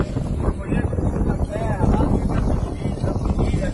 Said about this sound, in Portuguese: muito vento, né? Vento, vento, vento, vento.